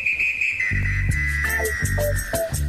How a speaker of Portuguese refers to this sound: eu acho que esse apito significa minuto da velha